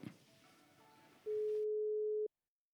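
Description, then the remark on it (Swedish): A single steady electronic ringing tone of about one second sounds clearly on a phone line as a call is being placed, following faint background noise, then cuts off into silence. “Eh, vi tar och ringer här nu med en gång, tänker jag.”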